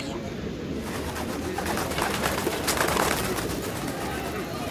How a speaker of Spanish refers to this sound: Hay muchas palomas, me encantan las palomas que habitan en este lugar.